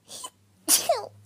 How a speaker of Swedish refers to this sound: Oj, prosit.